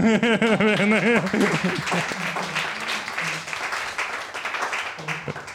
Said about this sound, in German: Applaus.